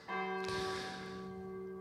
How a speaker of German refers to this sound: Äh, man hört den einen schlechten, kuriosen Stern hört man im Hintergrund. Offensichtlich testet die Glockenfirma gerade die äh, Glocken.